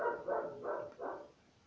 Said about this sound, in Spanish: No sé, parece que vino alguien y me recabe, me recabe, la perra ladra y ladra, me encanta ladrar.